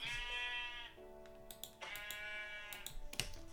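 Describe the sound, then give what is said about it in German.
Two drawn-out, quavering sheep bleats from a video game ring out loud as a player hits a sheep several times to kill it, with sharp clicking taps of keys or a mouse scattered between and under them. “Ich habe jetzt acht oder sieben Hits gebraucht, um ein Schaf zu töten.”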